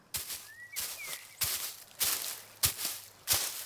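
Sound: footsteps approaching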